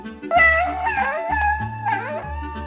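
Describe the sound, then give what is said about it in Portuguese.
A pet howls happily in long, wavering, sliding tones, rising and falling over a couple of seconds, clear, with a steady low hum underneath. “Carlota, você não consegue abanar o rabo, mas com esse uivo ninguém duvida do quanto está feliz”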